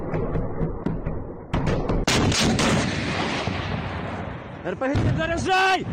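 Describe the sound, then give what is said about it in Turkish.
Russian artillery bombardment of Ukrainian cities such as Kharkiv, Sumy and Mariupol: a series of sharp blasts, then a heavy boom that rolls into a long, rumbling roar, with a loud wailing tone rising at the end. “Harkiv, Sumi, Mariupol gibi Rus işgaline direnen kentler ağır şekilde bombalandı.”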